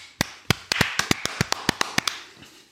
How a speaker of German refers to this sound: Schon Applaus an uns.